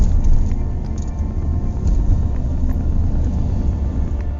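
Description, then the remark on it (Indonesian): A steady, heavy low rumble of a car engine heard from inside the moving vehicle, continuous and fairly loud throughout, with faint road and wind noise and no talking. “Setelah lebih dari satu jam, kami berada di atas mobil dengan mata yang masih tertutup dan tangan terikat.”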